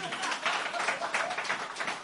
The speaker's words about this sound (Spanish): ¡Viva! ¡Viva! ¡Bravo, bravo, joder! ¡Aplauso, coño!